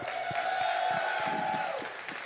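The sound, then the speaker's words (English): A crowd claps and cheers steadily for the worship team for about two seconds, a dense wash of applause with scattered whoops and a thin sustained tone running through it before easing slightly at the end. “Can we give it up for the worship team?”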